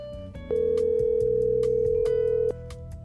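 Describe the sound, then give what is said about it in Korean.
A single steady electronic ringback tone sounds for about two seconds, loud and clear over faint background music, as a woman's outgoing phone call from Wonju, Gangwon Province, to her father in Gwangmyeong, Gyeonggi Province, South Korea, rings on the other end. “평소에 보통 엄마께 안부 전화를 드리는데 오늘은 저도 모르게 아빠께 전화를 걸게 됐어요.”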